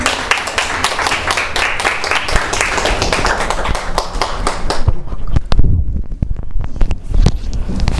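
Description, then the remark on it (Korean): An audience applauds to welcome a pastor, dense and steady for about five seconds, then thinning into a few scattered claps as it dies down, fairly loud. “우리 박수로 목사님 환영”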